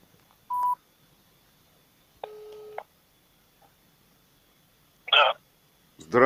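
A phone being dialed to call a lawyer: a few separate touch-tone beeps spaced well apart, the longest a steady two-pitch tone, followed by brief warbling electronic bursts near the end. Nobody speaks.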